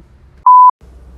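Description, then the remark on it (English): A single short, steady-pitched phone notification beep sounds loud, lasting about a quarter second, with faint low background noise before and after it. “So, um, sorry I got interrupted by a notification, but, um, I just, that I had to address.”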